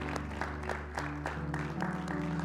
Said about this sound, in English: Come on, can you give him a hand clap of worship one more time? Thank the Lord.